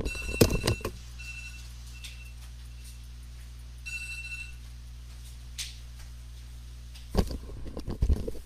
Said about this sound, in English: That was my timer to stop talking